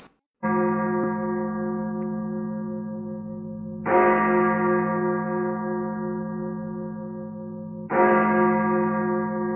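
A deep church bell of the Sagrada Família in Barcelona, Spain, tolls three times at a slow, even pace, each rich harmonic strike swelling then humming on and overlapping the next, heard in a music video opening, with no voices.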